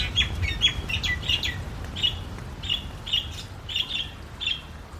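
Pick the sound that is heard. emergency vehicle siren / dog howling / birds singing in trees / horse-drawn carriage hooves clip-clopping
birds singing in trees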